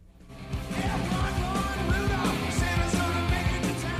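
A rock band plays a cover of a 1958 song at full volume, with driving drums, distorted guitars and a shouted vocal line pushing steadily along, with no one talking over it.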